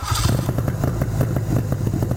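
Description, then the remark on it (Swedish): A car engine, started using the choke, runs at a steady, slightly rough idle, with a low rumbling hum and a fast, even ticking chug throughout. No one speaks. “Jag har lärt dig det här med choken. Lättare att starta den här än vad det är på andra bilar.”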